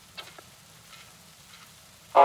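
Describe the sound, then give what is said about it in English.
Light rain patters softly with a faint, crackling hiss, then a sudden louder splash of noise swells in near the end. No voices are heard. “It begins to rain in our darkness.”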